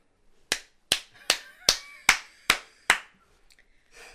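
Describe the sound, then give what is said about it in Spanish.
Seven sharp hand slaps in a quick, steady rhythm, fairly loud, imitating the slapping feet of people running in flip-flops, with faint rustling afterward. “personas corriendo en chanclas.”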